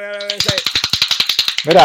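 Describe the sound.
A short 'golden applause' sound effect on the Negocios con Café show: a brief tonal chime, then a quick, even run of about a dozen sharp claps, cut off as a voice begins.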